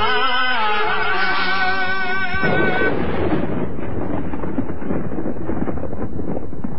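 thunder

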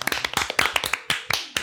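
clapping hands

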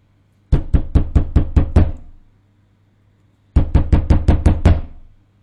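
knocking on a door

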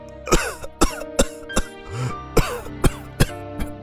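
coughing fit

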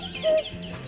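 bird calls

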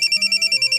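telephone ringing

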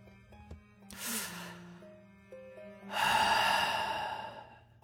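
deep breathing

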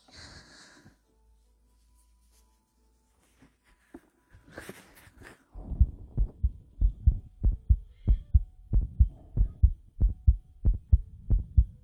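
human heartbeat

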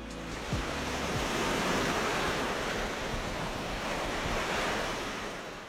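ocean waves

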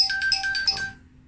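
phone ringtone

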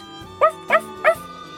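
big dog barking

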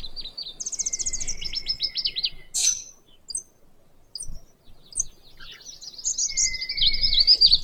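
bird calls

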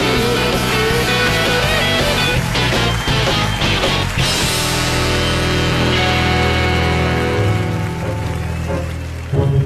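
audience applause

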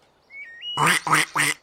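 duck quacking

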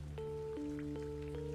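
rain

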